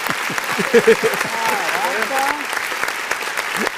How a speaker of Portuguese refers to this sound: Cadê as palmas? Tá vendo? Nem editor gosta.